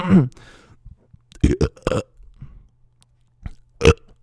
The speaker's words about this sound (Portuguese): Não precisa botar esse arroto